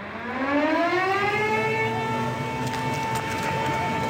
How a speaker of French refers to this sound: Il est 14h quand retentissent les sirènes d'alarme en Israël. On est en plein jeûne du Kippour. Un de mes premiers souvenirs, ce sont les sirènes de Yom Kippour.